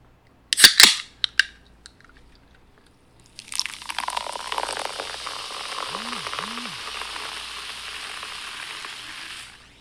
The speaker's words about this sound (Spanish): Ok, si su respuesta fue una lata de refresco, si su respuesta fue una lata de cerveza y se les antojó, acaban de experimentar algo que se llama apetito o un antojo, ¿va?